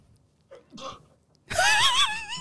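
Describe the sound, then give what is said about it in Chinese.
A fox sneezes, a quick, breathy sneeze bursting out in two short puffs, followed a moment later by a loud, high, wavering vocal cry that warbles up and down until the end. “突然之间就打了一个喷嚏， 背景有只狐狸在打喷嚏，”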